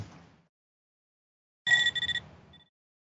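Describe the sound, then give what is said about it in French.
A short electronic alarm ringtone from an iPad on a bedside table, used as a wake-up alarm in an Apple video for iOS 11 and the iPad Pro: a bright, high-pitched tone pulsing a few times in quick succession for about half a second, followed by a faint trailing beep. Nobody speaks. “Je déteste cette sonnerie.”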